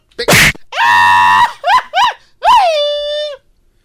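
A person lets out a series of loud, close vocal screams: a harsh burst, a long sustained wail, two quick yelps, then a final drawn-out falling scream, with no talking.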